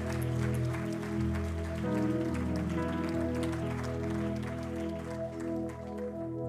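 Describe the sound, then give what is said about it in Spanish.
A church audience claps in praise to the Lord, a dense, continuous wash of hands over sustained held chords of music, holding at a constant level for the whole stretch without easing off. “Give a great hand of praise to the Lord.”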